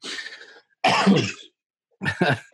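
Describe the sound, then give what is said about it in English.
A harsh coughing fit in three bursts separated by short pauses, each rough and throaty like someone choking, with no talking. “Girl, I got to tell you, as I choke myself up, geez, oh, Pete.”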